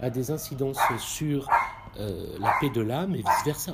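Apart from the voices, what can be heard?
dog barking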